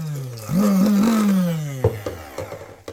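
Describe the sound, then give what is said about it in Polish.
A somewhat worn-out kitchen blender blending beetroot revs up into a loud, droning whir that wavers in pitch, then winds down, followed by a few sharp clicks and knocks. “Także muszę je teraz przecedzić z wody i pewnie też z pomocą przyjdzie mi tutaj blender, który trochę już ma dość.”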